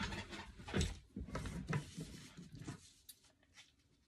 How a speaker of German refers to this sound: Dafür glaube also wenn ihr mich gerade nicht sieht, meine Hände oder so, ich hole gerade ein Blatt.